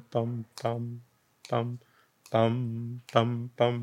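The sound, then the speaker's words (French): A clear voice chants a string of six "pam" syllables imitating dactylic rhythm, grouped with pauses into a long-short-short pattern, sung alone on a steady pitch. “L'examen dactylique fait toujours pam, pam, pam, pam, pam.”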